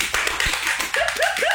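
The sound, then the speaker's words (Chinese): Hands clap in a quick, uneven burst of sharp slaps lasting over a second, joined toward the end by a few short rising chirp-like tones. “然后我们的播客已经好久都没有录制了，今天终于重新开张了，鼓掌。”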